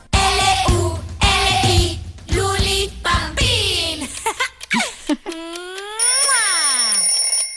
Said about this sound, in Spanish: Amigos, ¿escucharon ya el despertador?